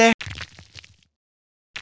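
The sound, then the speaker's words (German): A sharp knock, then a small domino stone, accidentally leaned on and knocked over, clattering and tumbling over a hard surface for about a second before going quiet; fairly loud, with another rattle starting at the end. “Okay, das war nicht der letzte Stein, der schlägt Purzelbäume und rollt weiter.”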